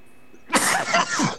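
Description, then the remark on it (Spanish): A loud fit of harsh coughing bursts out after a moment of near silence, several rough hacks running together with no speech, from a speaker with a lingering cough and sore throat. “Pinche tos no me suelta.”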